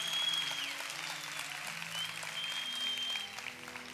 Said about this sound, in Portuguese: Se vai aplaudir, aplaude bastante.